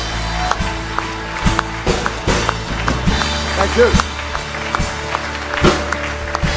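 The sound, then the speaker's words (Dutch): An audience claps steadily for several seconds, a dense, fairly loud patter of many hands welcoming a pastor as speaker, while a voice briefly speaks over the applause. “Laten we Pastor to een groot applaus Warm welkom.”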